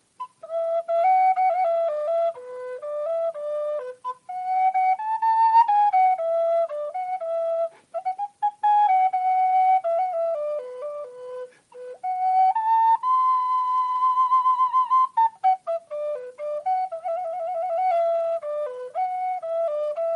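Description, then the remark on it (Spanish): A flute plays a flowing melody on its own, a bright mid-to-high pitched line in phrases with brief breaths between them, steady and fairly loud with no talking. “Bueno, pues hablando de música, y como suena el micrófono, voy a probar a ver cómo suena esta flauta.”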